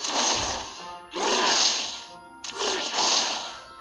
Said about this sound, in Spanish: Ahí se escucha, ah, donde gritan y se escucha ese es donde están aventando las flechas.